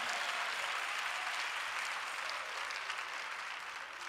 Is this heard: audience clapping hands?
yes